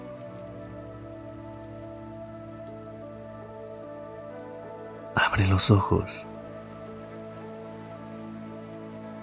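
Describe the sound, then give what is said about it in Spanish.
Steady rain patters on a surface throughout a guided meditation, a soft continuous wash beneath gentle sustained tones, interrupted midway by a voice speaking a short phrase. “Hoy realizamos una meditación con los sonidos de la lluvia, buscando calmarnos y renovarnos a través de sus gotas.”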